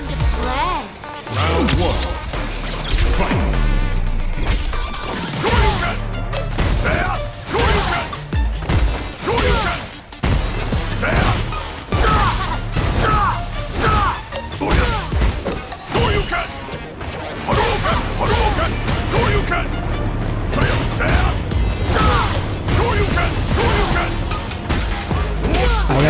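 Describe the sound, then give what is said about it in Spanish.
Captured fighting video game gameplay, Ryu versus Kimberly: a steady barrage of punches, whooshes and crashing hits over loud, driving background music, with shouted character grunts, and the music changing partway through as a character is about to be defeated. “Y lo que he hecho yo es realizar una captura de juego para que escuchéis claramente cómo esto funciona por si no habíais reparado vosotros en ello.”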